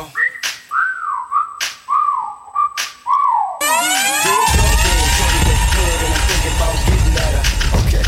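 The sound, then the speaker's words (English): A series of swooping whistled notes, each rising then falling, repeats over sharp percussive snaps before a loud, dense wash of overlapping wailing tones takes over. “Time to whistle at her.”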